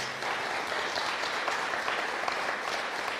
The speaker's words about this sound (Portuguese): Deus é bom, Deus é... Dá uma salva de palmas para Deus.